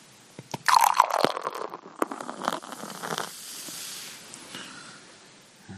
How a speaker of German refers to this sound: Ja, also ich meine, neun Zehntel Schaum. Ein Zehntel Schaum hat ein schönes Einschenkgeräusch, das kann man schon sagen.